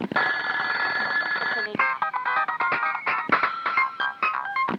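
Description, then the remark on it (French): A telephone rings loud, a sustained electronic trill giving way to a rapid, choppy run of repeated tonal bursts, with no voices. “Les conversations, les téléphones.”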